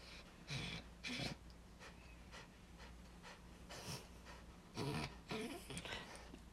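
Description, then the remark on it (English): A dog pants and snuffles in a handful of quick, breathy bursts, some grouped in pairs, over a faint steady hum with no one talking. “Our dog decided to join the podcast.”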